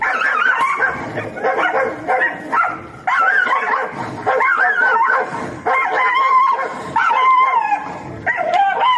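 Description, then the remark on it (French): Several dogs yap and bark over one another in a loud, continuous, chaotic chorus, with high-pitched yips and occasional whimpering mixed in. “Euh, j'avais choix entre choix choisir des chiens en train de japper ou un combat de coq, mais disons que c'est vraiment, écoutez, c'était hallucinant.”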